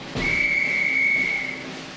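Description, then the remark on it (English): A drum major blows a single sharp, steady whistle blast, held for over a second before cutting off, heard over a faint background murmur with no one speaking. “The drum major is going to blow his whistle now.”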